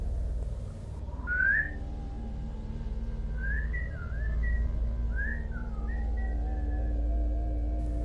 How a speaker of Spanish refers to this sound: Empecé a escuchar silbidos, lejanos, y luego rocas que caían desde arriba, como si alguien caminara por encima de mí y fuera pateando pequeñas rocas.